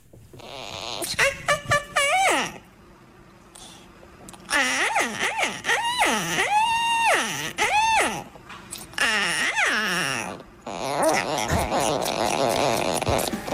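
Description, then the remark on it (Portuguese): A parakeet being petted on the head by a human hand lets out a string of drawn-out, delighted moaning calls that swoop up and down in pitch, opening with a quick burst of chirpy notes and ending in a buzzy, raspy warble. “Gemidos de deleite do periquito enquanto é acariciado na cabeça por mão humana”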